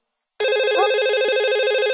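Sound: mobile phone ringtone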